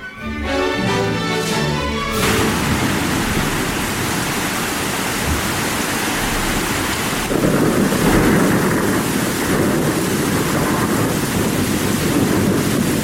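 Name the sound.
thunderstorm with wind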